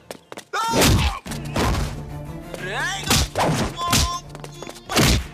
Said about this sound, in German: Krasse Kampfszenen. Ähm, muss ich sagen, geht so. Aber die Soundeffekte sind krass.